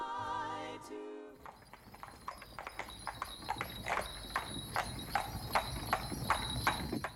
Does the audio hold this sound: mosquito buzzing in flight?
no